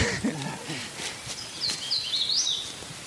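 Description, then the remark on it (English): A thrush and a cardinal sing in oak and hickory trees in the woods: clear, whistled phrases rising and falling over a steady, airy outdoor hush. “a thrush and cardinal sing in the oak and hickories.”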